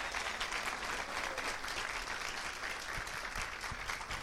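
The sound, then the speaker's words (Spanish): An audience gives a strong round of applause to Jesus, many hands clapping in a dense, steady wash of sound that holds at an even level for the whole few seconds, with no voices over it. “¿Por qué no le da un aplauso fuerte a ese Jesús?”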